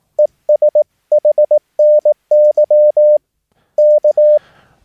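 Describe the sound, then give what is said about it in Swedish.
Morse code (CW) sending 73 73 and ES HNY, meaning 'and Happy New Year', in a single steady mid-pitched tone, keyed in crisp short and long beeps at a brisk, even pace with brief gaps between groups, clear, ending in a soft hiss of static. “Och sen kommer 73 73. Ja, det känner ni igen då. Och ESHNY, alltså And Happy New Year.”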